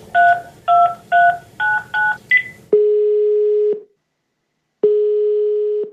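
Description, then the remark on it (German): A quick run of six touch-tone keypad beeps, evenly spaced, as a call is placed to a public observatory in Munich, followed by two long steady ringing tones separated by a pause of silence, clear with no voices. “dann rufen wir doch einfach mal Björn Wirtjes von der Volkssternwarte München an”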